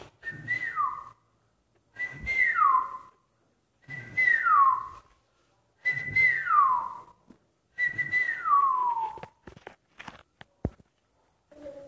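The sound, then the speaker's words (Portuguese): A person whistles five similar phrases imitating singing birds, in a steady rhythm, each a held note that slides downward, with short pauses between. Clear, with faint rustling underneath. “Os passarinhos cantavam, mas não cantavam como na cidade de papelão, assobiava.”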